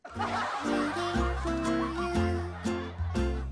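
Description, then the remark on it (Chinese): A goose honks repeatedly, a run of loud, nasal, harmonic calls in uneven bursts that sound a bit like cackling laughter, with no talking. “我呀不想养猫，也不想养狗，我想养只鹅。它一叫，我就觉得它在笑。”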